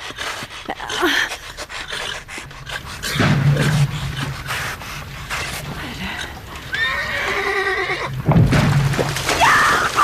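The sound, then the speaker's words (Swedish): A restless horse, stopped in the middle of the ice after galloping out onto it, backs up, snorts in heavy bursts and gives shrill, wavering whinnies, its hooves scraping and stamping as it rears, the sounds loud. “Hon stannar hästen mitt ute på isen. Hästen blir orolig, börjar backa, skrapa, frusta, stegra sig.”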